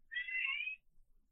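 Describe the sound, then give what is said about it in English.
A single clear cat meow lasting under a second with a slightly wavering pitch, followed by quiet background noise. “Sorry, that was our that was the cat.”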